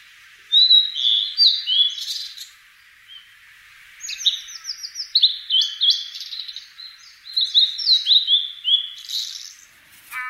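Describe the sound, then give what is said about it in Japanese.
A blue-and-white flycatcher sings at Rikugien garden in Tokyo, Japan, in the eastern Japanese song type: clear, high warbling phrases, three bursts of sweet descending notes separated by short pauses, with no other sounds around them. “六義園（東京都）のオオルリ”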